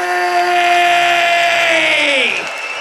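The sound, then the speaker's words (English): A loud festival crowd at Decibel 2023 roars and cheers continuously, with a long sustained shout riding over the noise that slides downward in pitch near the end. “Ladies and gentlemen, make some fucking noise”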